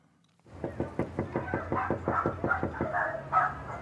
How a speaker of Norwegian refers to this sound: banker på i et nabolag nord i Philadelphia, der det bor mange latinos. Hun og tre andre aktivister går fra dør til dør der de har registrert folk med spanske navn.